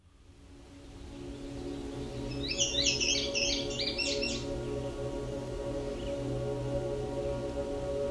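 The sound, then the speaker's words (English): An indigo bunting sings one brisk phrase of paired, high, sweet notes lasting about two seconds, heard fairly clearly over a steady low droning hum that continues afterward. “The song of the male indigo bunting is lengthy and complex and is best learned through listening and memorizing the song.”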